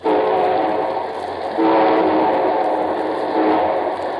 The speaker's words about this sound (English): And here comes our star studded show train.